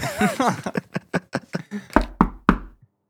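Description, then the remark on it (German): A quick run of knocks on a door, about ten raps in a steady rhythm, ending with three heavier, louder thuds, just after a brief voice at the start. “Ja, äh, kommen Sie doch bitte rein.”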